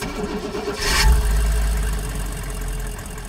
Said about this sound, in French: Le camion que je présente ce matin-là est un peu hors norme. Et pour illustrer ses capacités à circuler sur un terrain accidenté, je démarre le moteur.